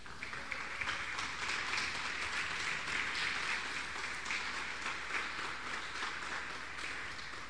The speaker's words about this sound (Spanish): ¿Cuánto le da un aplauso al Señor por eso?